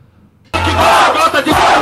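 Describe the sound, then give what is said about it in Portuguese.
A rap battle crowd suddenly erupts into loud cheering and shouting after a brief quiet moment, a dense roar of many voices that stays strong until the end. “Você chama a plateia, solta.”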